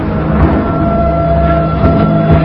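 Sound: train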